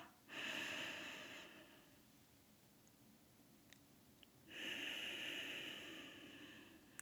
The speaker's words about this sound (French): Et à ce moment-là, moi, je vous invite toujours à prendre trois respirations, à inspirer en comptant trois, en expirant en comptant trois, encore une autre fois.